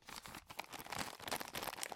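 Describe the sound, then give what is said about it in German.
Continuous crinkling and rustling of stiff coated-paper packaging with a paper band around it being handled and opened during an unboxing, with irregular bursts of crackle over two seconds and no voices. “Ähm, nee, das ist beschichtetes Papier.”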